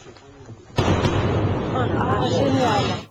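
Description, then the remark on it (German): A Concorde's double sonic boom, from shock cones at the aircraft's nose and tail, bursts in abruptly after a moment of quiet, a loud crack that rolls into a deep, sustained rumbling roar lasting a couple of seconds. “Deswegen knallt die Concorde auch zweimal.”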